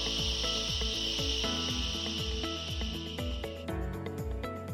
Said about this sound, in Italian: A questo punto prendiamo aria con il naso gonfiamo il palloncino nella pancia e adesso che buttiamo fuori l'aria facciamo shh.